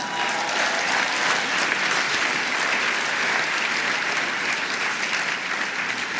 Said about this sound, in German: Ich muss sagen, das ist ein durchaus verdienter Applaus, denn das hat bestimmt 30 Sekunden gedauert, nur damit ihr wisst, was ich alles für euch auf mich nehme.